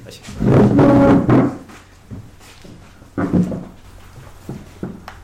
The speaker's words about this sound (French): Bon. Bon sang, ce bordel juste pour bouger trois chaises et poser vos fesses.